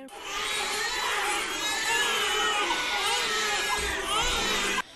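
A dense chorus of 46 newborn babies, born to surrogate mothers, wailing at the same time in one room of a hotel owned by a private reproductive medicine centre, overlapping high-pitched cries forming a loud, continuous din for the full few seconds.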